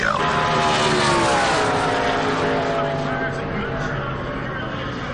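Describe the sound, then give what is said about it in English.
Loud, continuous roar of race car engines at full throttle, pitch sliding as cars pass by, with a dense, sustained wall of motor noise and crowd-like din. “Ah, the sound of those race cars.”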